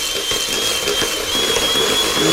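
A handheld electric mixer beats butter in a kitchen, whirring continuously: a dense buzzing motor hum with a faint high whine running through it.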